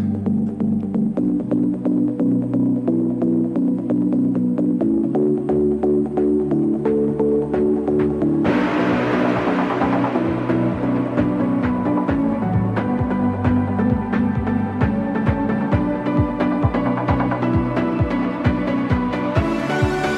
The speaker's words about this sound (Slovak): Slováci, či poznáte túto pesničku? Čo by nepoznali no, Slováci?